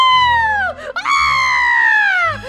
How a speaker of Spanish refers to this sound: Y justo en ese instante, una rata fea y enorme, Doña Doméstica, aterrada, chilla y chilla.